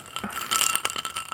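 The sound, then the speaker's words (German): Ice cubes in a glass of plain water rattle and clink against the glass in a quick flurry of bright taps, with no talking. “Da ist jetzt einfach nur Wasser drin und Eiswürfel.”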